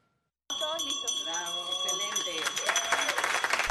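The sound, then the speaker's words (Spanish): A ceremonial bell at the Panama Stock Exchange rings with a sustained, steady metallic tone for several seconds at a Ring the Bell for Gender Equality event on International Women's Day, while a crowd murmurs and then breaks into clapping and cheering toward the end. “Con el acto simbólico del toque de campana, la Bolsa de Valores de Panamá reiteró su compromiso de apoyar la igualdad de género.”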